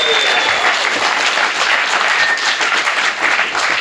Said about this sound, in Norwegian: Vi tar med der. Igjen applaus.